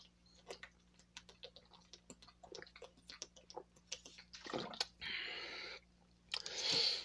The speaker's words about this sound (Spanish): Voy a tomar otra vez agua, amigos.